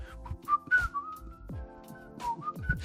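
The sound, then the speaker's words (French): Someone whistles a short melodic tune, the pitch gliding smoothly between notes, with soft breathy bursts and a low rhythmic background beneath it. “j'aurais toujours aimé avoir un truc magique un device un outil qui me permet de jouer de la musique avec euh, mon corps, avec, mon, avec le son de ma voix, de siffloter un truc”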